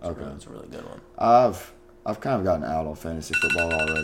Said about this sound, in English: Oh, there we go. That's a nice little alarm.